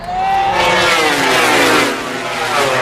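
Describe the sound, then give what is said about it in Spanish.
Motorcycle engines rev loudly at a gathering of motorcyclists, a steady roar with rising and falling pitch that fills the whole few seconds, with no voices over it. “3.000 motoristas, generando, pues según recoge el CINIC de Greuges, pues un problema de movilidad, infraestructura, de tráfico, conducción negligente, ruido, contaminación.”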